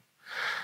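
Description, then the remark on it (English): A single quick sneeze: a short, breathy hiss that swells in sharply and holds briefly at moderate loudness, with no talking around it. “Bless you.”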